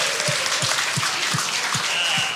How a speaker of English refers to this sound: Yeah, one more applause